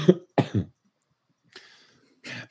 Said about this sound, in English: don't know how to get rid of this cough. I hope it just kills you at this point. Jesus, what is like? What even is it though? It's like I'm not like sick, but it's like I have this like lingering cough.